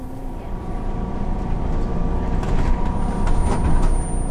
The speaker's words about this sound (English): Most days I commute to work by bus. It's quick and easy. Stop requested.